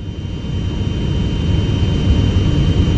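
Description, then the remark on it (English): A steady, loud roar of a Kenya Airways plane's jet engine on a flight from Entebbe to Jomo Kenyatta International Airport in Nairobi, Kenya: dense low rumble with a constant high whine on top, no voices. “At 10:30 a.m., we board a Kenya Airways plane from Entebbe to Jomo Kenyatta International Airport in Nairobi, Kenya.”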